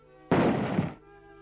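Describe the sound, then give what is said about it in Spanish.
A single loud gunshot rings out sharply, its burst of noise lingering for over half a second before fading, heard on its own against a quiet background. “El lobo estaba a punto de comerse al gallo y a la liebre cuando escuchó los disparos de armas de fuego”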